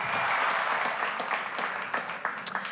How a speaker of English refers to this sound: So, an official welcome to Brighton as well as uh, OPA as the ambassadors. And of course, uh, let's all clap our hands for this partnership.